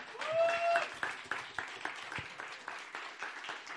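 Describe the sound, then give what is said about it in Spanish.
A crowd, asked to stand, applauds a preacher steadily in the afternoon, the dense clapping loudest at the start and then settling into a lighter, even patter. A high whistle or cheer rings out briefly early on. “Así que voy a pedirte que te pongas de pie y le demos un fuerte aplauso en esta tarde.”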